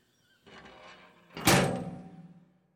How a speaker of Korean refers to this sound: 또아리를 튼 뜨악한 자리에서 뱀을 들어 올린 홈즈는 가까이 있는 금고에 던져놓고 얼른 문을 닫았다.